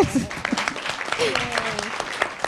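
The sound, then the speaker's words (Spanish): An audience applauds with steady, dense clapping that carries on for a couple of seconds, while voices talk over the clapping. “Un aplauso, eso estuvo buenísimo.”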